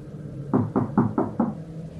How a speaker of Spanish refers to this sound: El despachador tocando la ventana me asustó de repente.